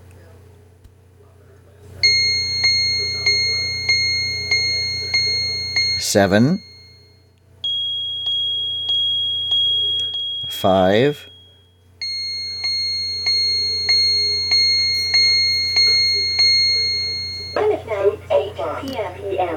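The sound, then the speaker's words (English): A touch-activated clock, touched on its mushroom cap, chimes the time, 7:58, in bright, ringing electronic tones: first the hour, a steady run of about seven strikes, a brief pause, then a longer run for the minutes, with a voice speaking briefly between the groups. “Now, to activate the time, it is a simple touch on the mushroom cap, and it will alert you the time by chimes.”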